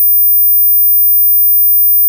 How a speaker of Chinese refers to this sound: 这是八千赫兹的声音，这是一万两千赫兹的声音， 这是一万五千赫兹的声音。